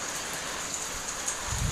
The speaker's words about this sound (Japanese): 雨ですねこっちはうちの住んでるところは